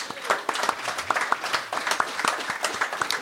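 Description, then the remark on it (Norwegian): A small audience in a bar breaks into applause, a dense patter of many hands clapping at a steady, moderate level with no voices over it. “Ja, med en liten applaus.”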